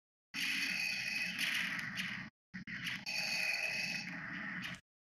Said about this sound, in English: Ignore the blasters in the background. I was gonna say this at another blaster. Uh, oh man, I'm thinking I'm thinking big and black and and sounds like he breathes through a scuba mask. I know it's Darth.